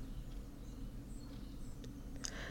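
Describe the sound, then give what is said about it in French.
Faint, scattered bird chirps sound, a few brief high calls spread out over a steady low background hum, with no one speaking. “Vous entendez un peu derrière euh, les bruits des, oiseaux mhm.”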